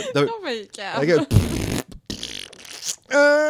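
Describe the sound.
A voice imitates fart noises with the mouth, several buzzy, sputtering blasts in a row, fairly loud, ending in a drawn-out raspy tone.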